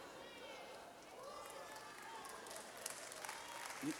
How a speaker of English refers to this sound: You don't have to clap, that's fine.